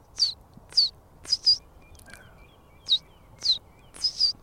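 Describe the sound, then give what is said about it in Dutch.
A reed bunting sings a four-note song of short, high chirping notes, some single and some in quick pairs, repeated across a few seconds over a quiet outdoor background, with no talking. “Ja, en, en de riesgors is eigenlijk een van de algemeenste Nederlandse moerasvogels. Wat voor geluid maakte hij nou?”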